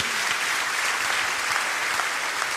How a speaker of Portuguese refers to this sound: Esse, vamos dar uma salva de palmas, porque William Tyndale